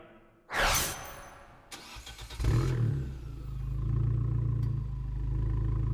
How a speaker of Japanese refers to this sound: フェラーリとアバルトが夢のコラボレーションキュートなボディに収められた1.4リッター直列4気筒ターボエンジンのサウンドをお楽しみください。